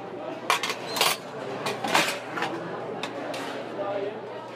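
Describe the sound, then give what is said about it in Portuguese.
Metal cutlery being picked up before serving oneself at a self-service canteen, several bright clinks and rattles scattered over a few seconds, with a steady murmur of crowd chatter behind. “Agora que você já pegou os talheres, já pode se servir.”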